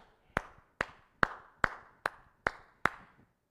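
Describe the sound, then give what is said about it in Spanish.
Seven sharp hand claps at a steady, unhurried beat, each a crisp slap with a short ringing tail, applauding footballer Humberto 'Chupete' Suazo. No one speaks. “Y si me lo permiten, quiero aplaudirle”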